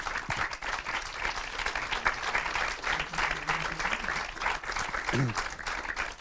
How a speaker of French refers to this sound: Et vous pouvez l'applaudir.